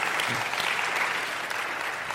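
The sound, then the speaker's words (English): A church audience claps steadily for a newly unveiled curriculum packet, a dense wash of many hands applauding at once with no gaps, holding an even, moderately loud level for the whole stretch. “Yeah, clap for that.”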